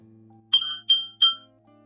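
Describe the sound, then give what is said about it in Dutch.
A car radio's traffic alert chime: three bright electronic tones in quick succession, clear and fairly loud over a faint low hum of background music. “Hier luisteren we de muziek in de radio, in de auto. En opeens komt er een melding door.”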